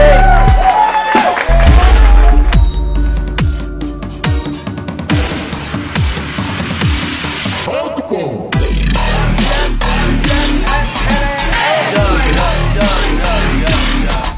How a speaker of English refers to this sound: Here we go. Let's not mess around. Let's give a round of applause, everybody.